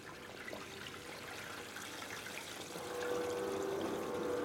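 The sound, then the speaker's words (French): Grape juice trickles out of a wine press, a large horizontal stainless-steel roller about 4 metres long and 1.5 metres wide in the middle of the room, in a continuous, splashy wash of liquid. The flow swells louder for the final stretch as a faint steady hum joins in. No one speaks. “On entend le jus qui s'écoule.”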